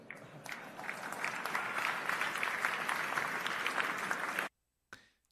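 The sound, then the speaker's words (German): Steady applause from a large Lower Bavarian audience at a political speech lasts about four and a half seconds, dense and fairly loud, then cuts off abruptly into silence before a brief trailing sound. “In, wir kann die Niederbayern schon klatschen, gell?”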